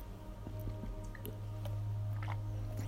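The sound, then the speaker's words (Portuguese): Someone drinks water, with a few soft, wet sips and swallows spread across a few seconds over a steady low hum. Nobody speaks. “Só um tinha que, que eu vou beber água.”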